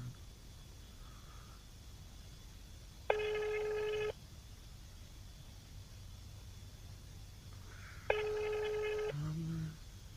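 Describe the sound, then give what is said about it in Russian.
An outgoing call rings unanswered: two steady, buzzy ringback tones, each about a second long and roughly five seconds apart, heard over a faint low background hum with no one picking up. “Он не возьмет, наверное, там отображается наш номер.”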